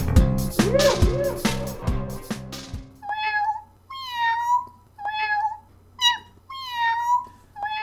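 A short musical sting ends abruptly, followed by a cat meowing five times in quick succession as the Gumby Cat Productions sign-off, each call clear, drawn-out and fairly loud, with brief pauses between them.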